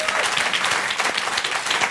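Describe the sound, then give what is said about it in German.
Steady audience applause, a dense patter of many hands clapping at even loudness for the whole stretch, with no voices rising above it. “Ein Applaus für Sibel Arslan, ihre Mami.”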